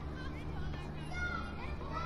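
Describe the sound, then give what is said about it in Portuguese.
A steady, busy wash of many children's voices playing, with overlapping high-pitched chatter and calls over a low, constant hum. “Muitas crianças brincando.”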